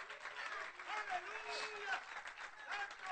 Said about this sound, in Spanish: Dale ese aplauso a Cristo, hermano.